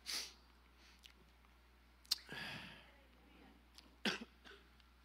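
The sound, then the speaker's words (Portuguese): A few short, harsh coughs spaced a couple of seconds apart, fairly loud against a quiet background with a low steady hum. “Não acredita nessa tosse, não.”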